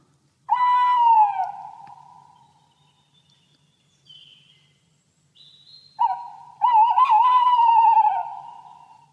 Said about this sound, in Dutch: Zang van de boshuilen is dit. En dat doen ze specifiek om het territorium uit te zetten.